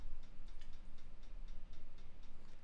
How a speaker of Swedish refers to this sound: Nej men det här är ju bara hi-haten.